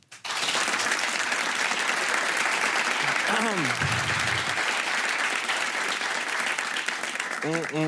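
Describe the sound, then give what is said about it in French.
Sustained, loud audience applause on a Canal+ broadcast, in support of women in Iran, fills the whole stretch, a dense wash of clapping with brief voices rising over it, including a short sliding cry midway and another near the end. “Et on leur envoie du soutien et de l'amour et j'aimerais qu'on les applaudisse.”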